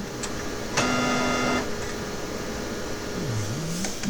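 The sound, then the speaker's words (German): A printer scanning: a steady mechanical whir with a sustained motor tone, a couple of sharp clicks, and a gliding pitch spanning a tritone interval that dips and rises near the end. No talking. “Den findet ihr hier bei meinem Drucker in der Scan.”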